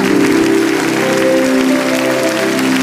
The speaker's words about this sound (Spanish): Y alguien va a celebrar porque cree que Dios habló, que se escuche ese aplauso. Que tiemble River, que sea el mayor aplauso de la historia.